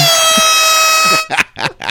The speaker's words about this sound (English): No, no, the, the air horn though.